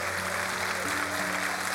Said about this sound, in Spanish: Vamos a darle un aplauso fuerte al Señor si usted lo entiende.